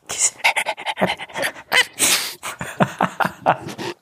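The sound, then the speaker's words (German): A person imitates a dog panting, with quick, breathy huffs in an uneven rhythm, fairly loud for about four seconds with no other speech. “Rappy könnte auch ein Hund sein. Rappy, ja, komm.”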